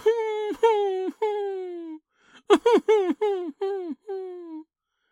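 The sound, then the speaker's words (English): Eerie, drawn-out crying wails, fairly loud, each sliding downward in pitch: three long cries, a short pause, then a faster burst of six sobbing wails, like a voice imitating weeping. “Do you hear that? That the tree is crying.”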